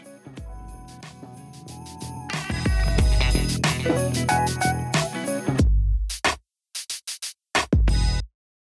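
Instrumental outro music plays loud and full with deep bass and layered tones, then breaks into a handful of short, punchy staccato hits before cutting to silence. No one speaks.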